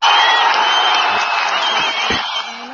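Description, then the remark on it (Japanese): A crowd claps and cheers in a dense, steady roar, with scattered whoops rising above the clapping. It stays loud for almost three seconds and eases off slightly at the end. “本当にもう拍手喝采みたいな感じなんですけど”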